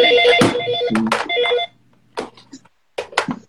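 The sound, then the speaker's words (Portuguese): A telephone rings with a loud, warbling electronic trill for about a second and a half, then cuts off as it is taken off the hook, followed by a few sharp clicks and knocks. “Deixa eu só tirar o telefone aqui do gancho.”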